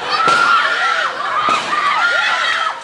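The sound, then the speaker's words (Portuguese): Two sharp gunshots, fired by criminals and a police officer reacting to an attempted robbery in a town square in the early hours of the morning, crack out about a second apart over a crowd of people screaming and shouting in panic, the frantic cries continuing loudly throughout. “Os tiros foram disparados por criminosos e um policial que reagiu a uma tentativa de assalto.”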